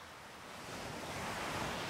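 Steady ocean surf washing along a coast, a broad hissing roar that swells slightly louder as the wave builds, with no voices present.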